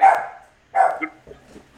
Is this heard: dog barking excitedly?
yes